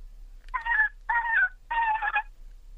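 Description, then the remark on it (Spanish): A human voice imitates a sad dolphin with three high, whining squeals, each about half a second long and separated by short pauses, moderately loud. “¿Me puede hacer por favor delfín triste?”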